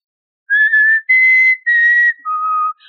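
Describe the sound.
Someone whistles a short tune of four clear, sustained notes, the last one dropping lower in pitch, fairly loud with no talking around it.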